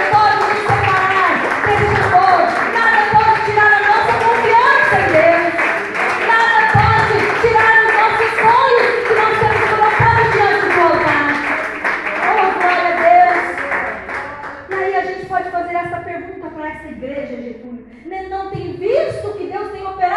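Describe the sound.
An audience standing and applauding the Lord Jesus, a dense steady patter running under loud voices and music, then thinning toward the end as the voices carry on.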